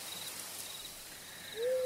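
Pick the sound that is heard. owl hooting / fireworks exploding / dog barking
owl hooting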